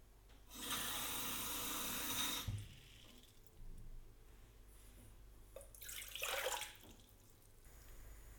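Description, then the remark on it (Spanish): Water is poured into a pot to cook polenta in a steady two-second gush, followed by a quieter pause and then a second, shorter splashing pour. Nobody speaks. “Voy a cocer esta polenta en la medida de un vaso de agua grande, 2 decilitros.”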